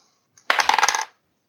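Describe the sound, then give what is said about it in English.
Dice rattle and tumble across a hard surface in a quick burst of clicks lasting about half a second, fairly loud, with no voices. “Okay, I am going to, you know, in the spirit of the show, since I get to pick next, I'm going to get to roll the dice.”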